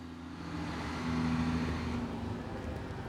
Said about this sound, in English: The truck that just drove by is one of our unarmored utility trucks that's taking students and their supplies out to the training environment.